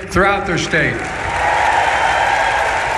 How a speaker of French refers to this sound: Sous les applaudissements, vous l'entendez, notamment du syndicat des ouvriers de l'automobile que le président américain a cité